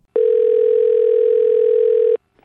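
A single steady electronic ring tone of an outgoing phone call sounds for about two seconds, clear, then cuts off into near silence.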